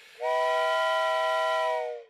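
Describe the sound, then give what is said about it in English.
A steam train whistle sounds once, loud, holding a steady chord-like tone for nearly two seconds before tapering off, with no voices present. “would you blow the whistle?”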